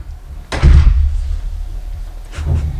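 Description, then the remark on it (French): A door slams shut with a heavy, booming thud, then after a short pause a second, softer bang follows, as if it closes again. No one speaks. “Ce que je sais, c'est que la porte est là-bas.”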